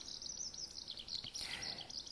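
A Eurasian skylark, soaring high in the sky, sings a continuous, rapid warbling song, high-pitched and busy with trills and chirps, steady throughout, with no voices present.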